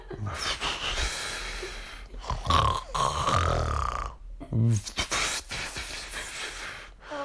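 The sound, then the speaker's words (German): A voice imitates loud, rasping snores, a few drawn-out breathy inhales and exhales with short pauses between them, fairly loud. “Der Roberti äh, klettert auf, klettert auf den Panther und der Panther streicht durchs Unterholz, während der Roberti oben auf dem, auf dem Rücken total schnarcht.”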